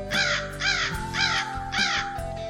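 A crow caws four times in a steady, evenly spaced rhythm, each call harsh and raspy, over a faint low background hum.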